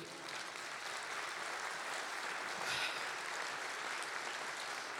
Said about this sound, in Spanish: Ahora sí, denle un aplauso a Jesús.